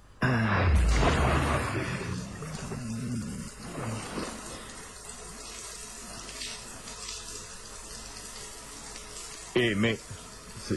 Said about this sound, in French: L'eau. L'eau qui coule de la douche.